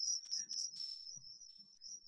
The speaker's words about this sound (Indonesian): Ya, uh, tapi suara jangkrik saya nggak mengganggu ya? Enggak, enggak. Malah asik nah, itu. Oke. Okay. itu jangkrik dari desa tuh nemenin saya nih sekarang.